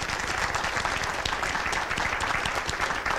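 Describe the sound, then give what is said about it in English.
An audience at a conference session applauds a speaker steadily, a dense crackle of many hands clapping at once, sustained and fairly loud throughout with no voices rising above it. “Uh, let's give a nice uh, round of applause to Larry.”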